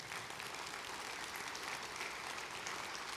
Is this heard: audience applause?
yes